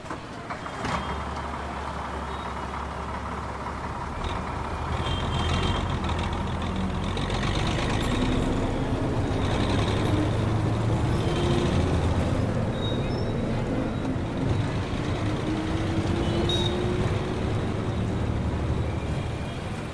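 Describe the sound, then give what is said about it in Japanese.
A bus converted for hauling cargo rumbles steadily from start to finish, a low continuous drone with gear-shift whines rising and falling as it travels from Kathmandu toward the Tibetan border in the early morning, heard from inside. “9月7日の早朝俺たちはカトマンズを出発した朝5時半バスを運搬用に改造した車に乗り込んだ車はチベットとの国境へ向けて走り出した。”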